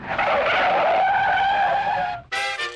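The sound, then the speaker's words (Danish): A loud, sustained tire screech as a car skids hard through a turn at 100 km per hour for about two seconds, followed after a brief break by a sharper, higher squeal. No voices. “og blev samtidig kastet fra side til side, når kødbjergene foran sendte vognen ind i et sving med 100 km i timen.”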